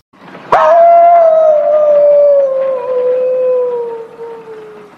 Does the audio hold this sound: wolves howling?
yes